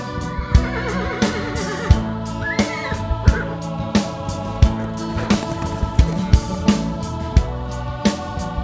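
A horse whinnies with a wavering, trembling call near the start, heard over steady, rhythmic drum-like music that pulses evenly throughout.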